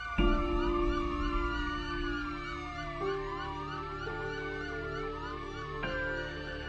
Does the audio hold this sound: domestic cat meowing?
no